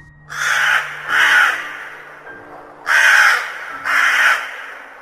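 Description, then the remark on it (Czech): A raven caws four times, loud: two harsh, rasping calls, a short pause, then two more in the same rhythm, with no voices around them. “Když tu s velkou motanicí stoupil starodávný havran z dob, jež jsou tak záslušné bez poklony, bez váhání, vznešeně jak pán či paní, usadil se z nenadání v póze velmi výhrušné.”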